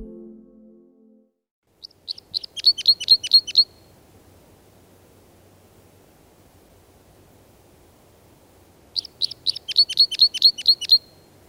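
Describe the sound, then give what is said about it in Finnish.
A parrot crossbill calls in two bursts of rapid, high, sharp chip notes, each a quick run of about eight to ten notes, over a steady low hiss like rushing water. “Tässä ääntelee tämän viikon luontoääni Pikku Käpylintu.”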